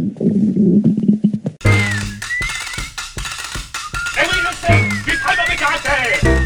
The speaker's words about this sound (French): son ventre laissa brusquement échapper cette petite musique.